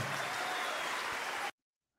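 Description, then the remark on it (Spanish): A dense burst of crowd applause for the church of Christ, steady and fairly loud for about a second and a half, then cutting off abruptly into silence. “Aplauso para la iglesia de Cristo, la esposa de Cristo.”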